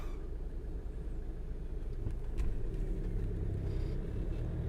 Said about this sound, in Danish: Ah, nu er trafikken også gået helt i stå herinde i Odense, synes jeg godt nok.